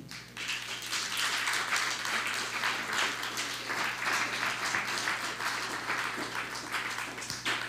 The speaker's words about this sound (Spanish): dale un fuerte aplauso que lo está saludando.